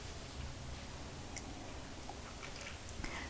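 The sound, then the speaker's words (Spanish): A long, quiet sip of unsweetened coffee on a cool, somewhat sunny morning of 14 December 2023 in Havana, Cuba, with soft slurping and faint mouth clicks over a low background hiss; no one speaks. “así que me voy a dar un sorbito de café bien largo en este 14 de diciembre de 2023 que ha amanecido fresco pero algo soleado, no tan húmedo y lluvioso como ayer miércoles aquí en la capital cubana.”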